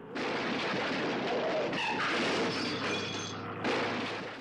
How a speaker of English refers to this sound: The jeep slammed into a large rock, flipped up and forward, and landed on its roof with a loud crash. The bloodied bodies were further peppered with shattered glass and ragdolled against the insides of the jeep.